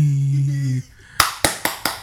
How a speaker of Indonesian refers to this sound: Waduh, dia tepuk tangan lagi teman-teman. Ada yang nyetak gol. Ngapain tepuk tangan? Tepuk tangan dia.